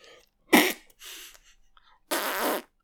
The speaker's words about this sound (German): Hast du gefurzt?